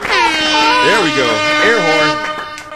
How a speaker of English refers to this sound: There we go. Air horn.